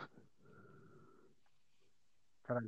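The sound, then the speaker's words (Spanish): A person yawns once, a drawn-out, breathy groan with a steady voiced tone that fades after about a second, followed by a brief silence and a short burst of sound. “¿Quién está bostezando”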